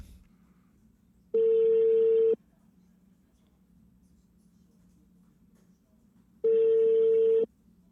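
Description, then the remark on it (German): Two steady electronic ringback tones sound over a phone line during a test call placed after pairing a Roadcaster, each lasting about a second with a long pause between, moderately loud over faint background hum and no talking. “Kannst du mal Marco anrufen?”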